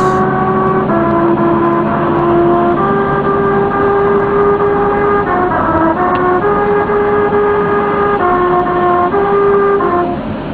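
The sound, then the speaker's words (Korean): Car tires rolling over the grooved surface of a real singing highway while driving produce a steady buzzing hum that shifts through distinct sustained pitches, forming a slow tune over constant road noise for about ten seconds. “제가 실제로 어, 노래하는 고속도로에서 달렸을 때 난 소리를 잠깐 한번 들려드릴게요.”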